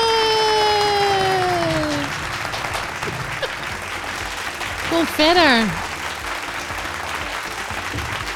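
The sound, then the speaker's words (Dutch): Steady applause welcoming a guest fills the whole stretch, opening with a long falling cheer. A voice briefly speaks partway through while the clapping continues. “Ja, zo hoort het als je met het gast. Applausje.”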